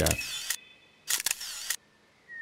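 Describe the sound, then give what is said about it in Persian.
A camera shutter fires twice while photographing a half-ruined house, each shot a sharp mechanical click followed by a brief whirring film-advance motor, with a short pause between them and no talking. “در طول مسیر جلوی خانه نیمه ویران خسرو ایستادن سارا دوربین را بیرون کشید و شروع به عکس گرفتن کرد”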